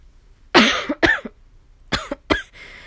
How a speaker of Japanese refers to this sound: アレルギーのね、咳がちょっとなんかわかんないけど出だしてますね。なん、なんだろう。ちょっとね、よくわかんないんですけど。